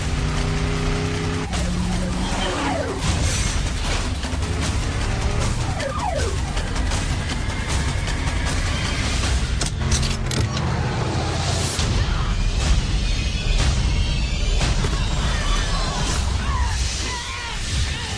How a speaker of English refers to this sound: little kid just jumped out of a car that went over the cliff.